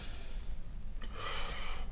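A single sharp, heavy inhalation drawn in suddenly about halfway through, as a person gets ready to speak up, a loud breathy rush after a quiet stretch of low rumble, with no talking.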